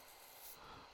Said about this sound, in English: That sound you can hear is my beard brush. Ooh.